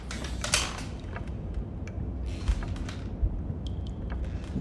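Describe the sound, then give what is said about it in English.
A rocking chair creaks and rocks back as a person tries to sit up and get out of it, with several scattered wooden groans and squeaks at irregular intervals over a low rumbling background. No one speaks. “this rocking chair, it made me think like these people they did this before because every time I moved up, it would rock me.”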